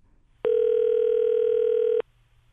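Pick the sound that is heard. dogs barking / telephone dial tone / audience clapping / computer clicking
telephone dial tone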